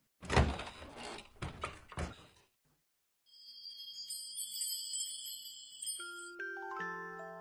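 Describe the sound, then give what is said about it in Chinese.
Several loud knocks on a door in quick succession, then a pause and a bright, ringing chime of high bell-like tones that step down in pitch and fade out. “如果你愿意和我一起，那就请走过来，你只需要敲敲门。”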